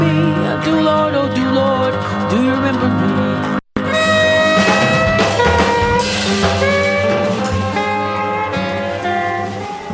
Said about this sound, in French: on est encore dans un mélange de poésie, de spoken word, de jazz, euh, d'une espèce de, musique d'archives